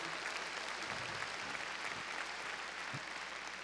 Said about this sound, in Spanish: Démosle palmas fuertes al Señor, gloria a Dios.